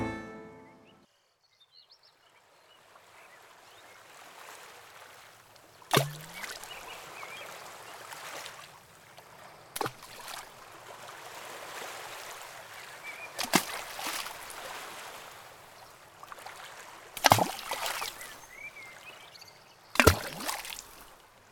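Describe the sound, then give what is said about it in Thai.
Five sharp splashes land one at a time, a few seconds apart, as a person sitting on the riverbank beside an army camp in the evening throws stones into the water over the steady rush of the flowing river. No one speaks. “มานั่งปาหินระบายอารมณ์อยู่ที่ริมแม่น้ำข้างกองทัพ”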